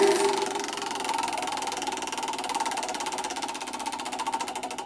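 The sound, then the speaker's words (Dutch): A prize wheel, given a strong spin by hand, ticks rapidly and steadily against its pointer in a dense, even run of clicks. The clicks continue throughout without slowing much, with no voices over it. “Het draait toch altijd wel lang, hè? Ja, het is een lang rat.”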